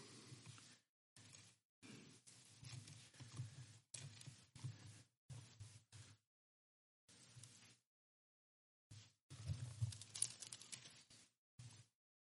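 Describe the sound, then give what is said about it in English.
Soft, papery rustling of Bible pages being turned as people look up a passage, coming in a series of irregular short bursts with brief pauses between them, fairly quiet, with no talking. “I can hear pages turning, but I can't hear you scrolling.”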